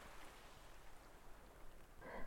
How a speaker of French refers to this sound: Laissant le ciel doucement s'abattre sur le paysage. La pluie, devenue bruine insistante, minuscule gouttes